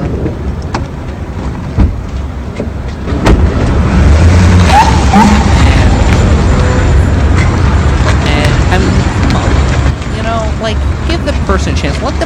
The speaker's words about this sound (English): and I guess it's just ambient sound for driving away.